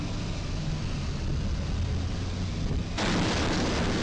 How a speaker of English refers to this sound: Pretty good one. Smash the truck right up.